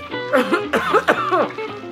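A person coughs several times in quick succession, fairly loud, with rough, throaty bursts and no other talking.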